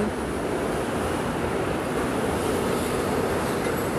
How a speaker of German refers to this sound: ich bin gerade abgelenkt durch diesen Güterzug, der gerade vorbeifährt. Man hört wahrscheinlich nur noch diesen scheiß Güterzug, egal da kommt schon die Grünaubahn, sehr schön.